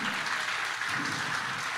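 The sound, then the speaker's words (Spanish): An audience claps together in a dense, steady wash of applause, many hands at once, sustained and fairly loud throughout with no voices standing out. “Y si ese aplauso es para el Señor, déselo bien.”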